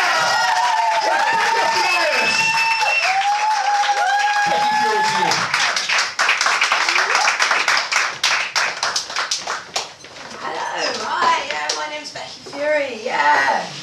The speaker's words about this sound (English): And I'm looking at everyone in the room now. I want you all to represent a proper clap when I count to three. Here we go. One, two, three.